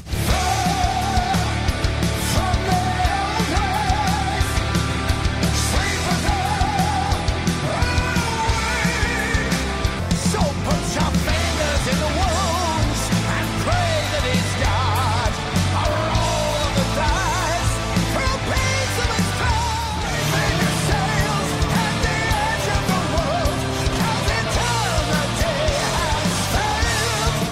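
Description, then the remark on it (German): A loud, dense rock track from a newly released 10-track album plays continuously, with heavy distorted guitars, driving drums and a singer's voice riding on top, full and steady from start to finish. “… heißt das Teil und umfasst insgesamt 10 Tracks. Und da hören wir jetzt so ein bisschen rein.”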